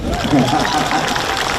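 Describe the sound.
An audience at the Chishang autumn rice harvest arts festival in Taitung, Taiwan claps and cheers when a performer asks for applause, a dense, steady wash of applause at an even, fairly loud level, with voices calling out mixed into the crowd noise.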